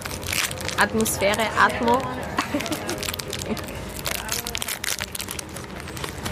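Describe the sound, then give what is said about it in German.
A plastic packet of Spekulatius cookies is opened at an outdoor café on a cold September day, crinkling and rustling in dense, crackly bursts throughout, while a person speaks briefly over the first couple of seconds. “Öffnen wir mal. Ja, ein bisschen knusper, knistern.”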